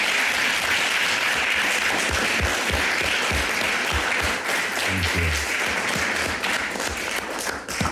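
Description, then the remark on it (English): An audience applauds steadily after a prayer, putting their hands together for the King of Kings, a dense wash of many hands clapping that holds for the full eight seconds without letting up. “Again, let us put our hands together for the King of Kings.”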